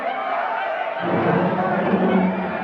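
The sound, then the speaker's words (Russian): A dense crowd noise swells up after about a second into a loud, continuous roar of many voices shouting together, steady for the rest of the moment: people coming out of houses, shops and cars, shouting. “Из домов, магазинов, машин все выходят и начинают кричать. Кажется, я тоже начинаю их слышать аж из бункера.”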